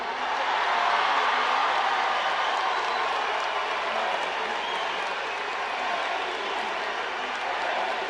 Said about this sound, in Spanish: Al grito de presidenta y con aplausos, las y los congresistas de Morena de todo el país respaldaron a la jefa de gobierno de la Ciudad de México, Claudia Sheinbaum Pardo, durante el tercer Congreso Nacional Ordinario del Movimiento